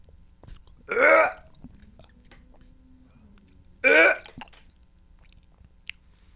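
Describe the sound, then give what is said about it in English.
Someone struggles to swallow dry food, letting out two loud, strained gulping, gag-like noises about three seconds apart, against a quiet background. “I will not finish this fucking I'm booty. swallowing mine.”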